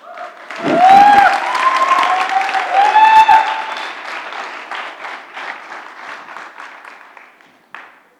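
An audience bursts into loud applause for the Lord Jesus, with a few cheers and whoops on top, then the clapping thins out and fades, ending with one last clap.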